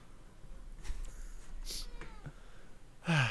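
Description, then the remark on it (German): A hungry male cat lets out a single short, fairly loud meow near the end, after a stretch of quiet room noise with a few faint clicks and rustles. No one speaks. “Mein Kater hat Hunger.”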